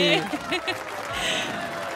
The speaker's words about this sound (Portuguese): Nossa, que palma longa. É, é, é bastante aplauso.